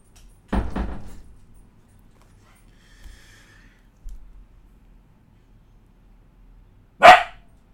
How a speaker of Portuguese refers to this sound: Tá latindo, cachorrinha? Vem cá, vem. Vem cá. Tá assustada, né?